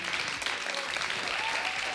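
Sustained audience applause, a dense, steady wash of many hands clapping at an even loudness throughout, with no voices standing out above it.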